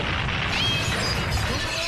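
A loud, sustained crash as David Wiese smashes through the doors into the Jacaranda FM studio without opening them, a dense burst of splintering and clattering noise that stays heavy for about two seconds with no voices.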